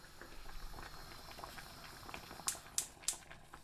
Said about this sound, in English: Okay, well the lemon has been boiling away now for over half an hour, so I'm going to take this off the heat.